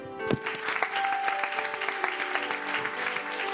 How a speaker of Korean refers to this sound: 자 주님께 영광의 박수를